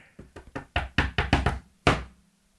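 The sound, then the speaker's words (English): A quick series of about eight sharp knocks made by a person on a hard surface, not at a door, some clustered in rapid pairs, ending with one louder knock after a short pause. No voices. “That's me, not, not someone knocking at my door.”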